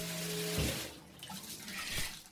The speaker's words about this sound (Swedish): jag kommer hoppa in i en dusch